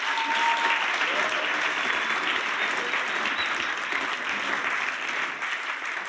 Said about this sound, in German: Geben wir Mami noch einen Applaus.